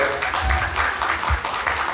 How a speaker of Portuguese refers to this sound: Uma salva de palmas para eles, por favor.